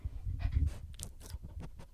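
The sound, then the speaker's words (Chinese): A dog named BB pants in quick, soft breathy bursts, followed by a brief squeaky yawn, with low rustling and snuffling throughout. No one speaks. “好，他打哈欠了。”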